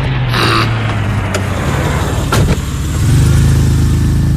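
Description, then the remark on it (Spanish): A taxi's car engine idles with a low, steady hum, briefly revving around the middle before settling back into a louder, rumbling drone as the vehicle pulls up. No one speaks. “¡Taxi! No sé chiflar, pero ¡taxi!”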